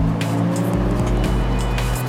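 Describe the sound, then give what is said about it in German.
A loud, tuned car engine roars steadily, its deep throaty rumble punctuated by a few sharp pops or gear shifts, with no talking. “Schneller und lauter, als wir es uns gewöhnt sind, wie vieles in dieser Geschichte aber er tönt einfach als Auto”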